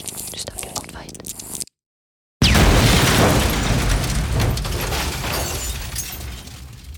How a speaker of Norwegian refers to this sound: No skjer det. Jeg er klar, lag eksplosjon.